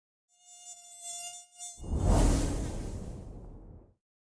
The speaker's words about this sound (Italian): Quello che avete sentito e il rumore che fa una zanzara lo avete sentito anche in altri intervalli che abbiamo messo prima fra la nostra chiacchierata e appunto è prodotto dalle ali sostanzialmente delle zanzare.